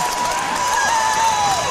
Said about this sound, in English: The Cardinal fans up and cheering.